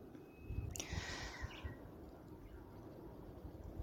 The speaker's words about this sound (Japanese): 川の音っていうのもさらさらといいものでございますね。